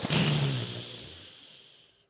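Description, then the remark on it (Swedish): A voice imitates heavy breathing: a sharp, breathy gasp with a brief low moan, then a long airy exhale that fades out over about two seconds. No words are spoken. “ett sug in och ett ja. stön ut.”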